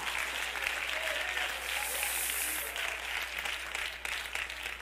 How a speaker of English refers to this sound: Oh, clap your hands if you love that truth about God.